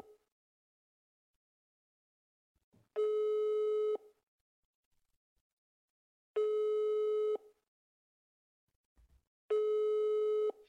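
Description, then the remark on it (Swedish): A telephone ringback tone sounds three times, each a steady one-second buzzing beep followed by a few seconds of silence, as a call is placed and waits to be answered. No one speaks. “Så att, först ut tänkte vi, det passar väl då att du kan väl ringa Filip och höra hur det går.”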